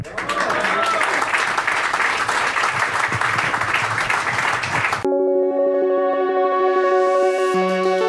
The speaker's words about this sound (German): Wir haben so ein unglaublich gutes Publikum. Von dem her die klatschen, die klatschen auch immer genau dann, wenn wir sagen, ihr müsst klatschen, dann die klatschen. Also ist wirklich gut.